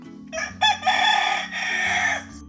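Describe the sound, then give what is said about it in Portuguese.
A rooster crows once, loud, a long harmonic cock-a-doodle-doo rising and holding before trailing off, with a low steady hum underneath. “O galo cantou.”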